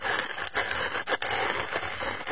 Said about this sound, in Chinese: 红袋鼠告诉他们：“ 这是转笔刀，用来削铅笔的。” 哇，好好玩呀！ 他们三人把彩色铅笔插到圆孔里，用手一转，沙沙沙，